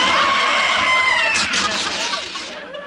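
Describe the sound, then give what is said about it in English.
A loud, shrill, high-pitched scream holds for about two and a half seconds with a harsh, strained edge, then trails off and fades at the end. “That high pitched scream didn't fool me”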